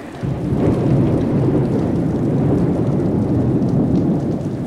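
A thunderstorm with heavy rain pouring down steadily and a deep, continuous rumble of thunder underneath, loud throughout, with no voices.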